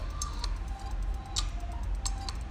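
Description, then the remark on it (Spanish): A WhatsApp message notification tone: a few short, soft popping blips scattered across a couple of seconds, fairly quiet against a low background hum, with no voices. “perdón el sonido de WhatsApp,”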